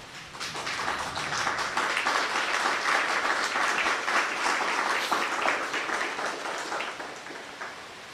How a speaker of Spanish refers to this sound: Dale un fuerte aplauso.